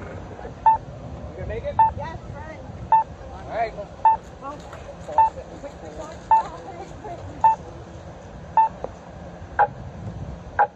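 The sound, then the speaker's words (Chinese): An American pedestrian crossing signal, which sounds only when its button is pressed, beeps steadily: about ten short mid-pitched tones spaced roughly a second apart over a low rumble of traffic. A voice briefly announces that the walk sign is on to cross 17th Street Northwest. “咱们楼底下的这种这种声音的方案，其实还有一些还有一些其他的方案，我们来一起听一下吧。这个声音是美国的”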